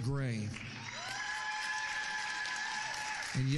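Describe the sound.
An audience applauds steadily for about three seconds to welcome guests, a sustained musical tone ringing beneath the clapping, with a voice speaking briefly at the start and again at the end.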